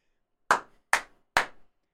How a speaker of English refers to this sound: Sorry if I blew your eardrums out with that clap.